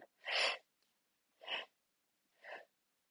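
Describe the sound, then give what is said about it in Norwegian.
Three quick, sharp breaths drawn in by a person demonstrating taking a breath, the first longest and loudest, the next two shorter and fading, with silence between them and no talking. “Så når du trekker pusten, gjør deg klar til kamp.”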